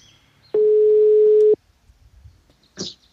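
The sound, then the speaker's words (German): A single one-second burst of a steady telephone ringback tone sounds as an outgoing call to a former professional triathlete rings, followed by quiet line hiss and a brief rustle or click near the end. “dann rufen wir ihn doch mal an.”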